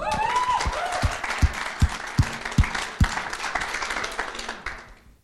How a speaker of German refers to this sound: gebt ihr mal einen mega Applaus.